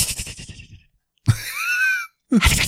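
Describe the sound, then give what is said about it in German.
A person imitates a hissing basilisk with breathy, drawn-out hisses, one longer strained hiss in the middle between shorter bursts, fairly loud with no speech. “Du hörst sein Zischen. Mach mal Zischen.”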